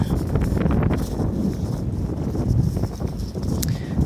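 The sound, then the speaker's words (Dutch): Steady, loud wind buffeting a microphone in windy weather, a dense low-frequency rumble with fluttering gusts throughout, plus faint rustling and occasional clicks, constant. “Oh man, ik hoop echt dat je me goed kan horen, want het waait een beetje.”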